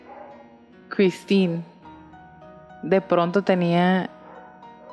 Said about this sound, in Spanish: perdón por los perros